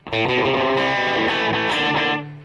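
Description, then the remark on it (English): A loud, sustained electric guitar passage with a thick, distorted tone and echoing delay repeats, notes smearing into one another for about two seconds before cutting off; no voices. “That part's tricky though, because I'm hearing that delay.”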